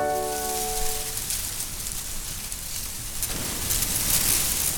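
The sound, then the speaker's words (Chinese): Silvergrass rustling in the wind, a steady, airy hiss that swells slightly toward the end, with a fading musical tone in the first second and no voices. “哦，这是芒花被风吹的声音。”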